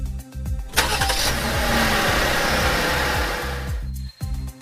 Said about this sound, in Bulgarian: Бибипкат. Вълни от клаксони и спирачки. Отварям очи и виждам реалността. Софийското море е мираж, на мястото на който Цариградското шосе е изпълнено с движение и шум.